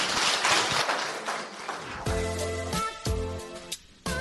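A burst of audience clapping and cheering fills the first couple of seconds, then fades as loud, sustained tonal notes with a musical quality take over. No one speaks.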